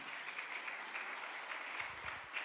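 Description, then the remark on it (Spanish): Steady applause from a crowd, a dense wash of clapping that holds an even level for the whole stretch, with a few faint low murmurs near the end. “¿Cuánto le da un aplauso fuerte a papá?”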